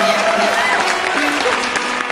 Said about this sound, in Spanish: La noche que tal vez te recibe con esta ovación de nuevo, hermano.